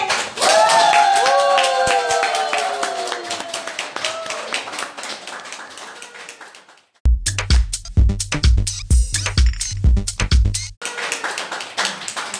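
A crowd claps steadily for about twelve seconds, with high whoops and cheers early on; midway a thumping bass music beat joins the dense applause before it drops away again.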